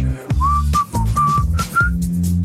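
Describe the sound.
Someone whistles a short melodic tune from the film Top Gun Maverick, a handful of clear sustained notes rising and falling in a rhythmic phrase, fairly loud over a low, steady background hum.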